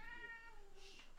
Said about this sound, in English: That's true, and I don't know if you could hear the cat in the background as these cat makes an appearance on the Machismo. Whoa, what's these cat's name? Take a guess. Douglas Jr.